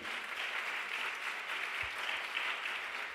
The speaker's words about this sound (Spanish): Mire, amén, denle un aplauso al pastor, aplaude ahí.